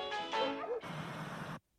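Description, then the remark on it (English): A man's voice lets out a short, wavering dog-like howl, fairly loud, lasting under a second before giving way to a burst of harsh, noisy static that cuts off abruptly. “He does a better howl than you did.”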